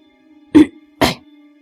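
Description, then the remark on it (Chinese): Two short, sharp coughs, loud and breathy, about half a second apart, over a faint steady low hum with no talking. “莫凡咳嗽一声说”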